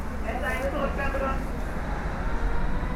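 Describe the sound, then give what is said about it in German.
Steady rumble of a Berlin S-Bahn commuter train ride heard from inside the carriage, travelling to the Zehlendorf district and the Mexikoplatz stop, with muffled voices briefly rising over the continuous low drone. “Ich fahre mit der S-Bahn ins Nobelviertel Zehlendorf, Haltestelle Mexikoplatz.”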